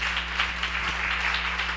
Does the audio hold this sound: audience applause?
yes